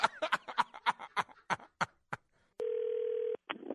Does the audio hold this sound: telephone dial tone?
yes